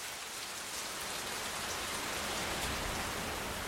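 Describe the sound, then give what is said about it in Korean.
Heavy rain pours down steadily, a dense, continuous hiss of countless drops drumming on a surface, loud with no pauses and no voices. “보슬 비라면 운동하러도 괜찮지만 장대비가 오면 장화를 신고”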